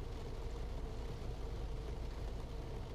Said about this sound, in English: And I just wanted y'all to hear the rain. I'm sitting in the car chilling.